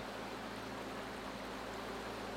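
A river rushes and tumbles steadily down a hillside near the foothills of Snowdon, heard in the background, a continuous hissing wash of water with no pauses, heard alone without any voices.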